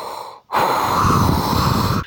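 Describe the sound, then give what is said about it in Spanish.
A voice imitates heavy, mechanical respirator breathing: a brief rasping intake, a short pause, then a long, loud, hissing exhale. “con esa respiración ahí que tú sabes que tú estás alcanzando tu máxima capacidad pulmonar”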